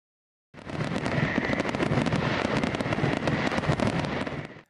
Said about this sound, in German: Vielleicht dann wunderschön Feuerwerk genießen, die von den Gemeinden, von den Städten, von den Dörfern dann auch ausgerichtet werden